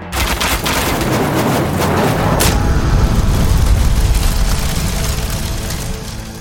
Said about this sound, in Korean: 아군이 성 아래로 진격하여 다가가서 여러 종류의 화포를 한꺼번에 발사하니 그 소리가 천지를 진동하고 연기와 불꽃이 허공에 솟구쳐 싸웁니다.